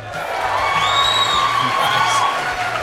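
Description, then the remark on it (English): A studio audience of at least 400 people cheers and whoops steadily for about three seconds during a show celebrating Australian music, a dense wash of many voices with a few high-pitched shrieks and yells rising above the roar. “Come on, folks, give us a cheer.”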